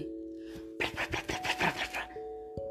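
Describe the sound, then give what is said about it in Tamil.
A voice mimics birds chirping in a dense forest with a quick run of about eight bright, raspy chirps, set against a low steady hum that runs before and after. “அப்படின்னு பறவைகள் ஒரு பக்கம்”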